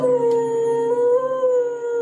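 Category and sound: animal, dog howling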